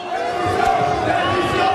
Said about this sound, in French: En 2016, François Hollande avance sous les huées.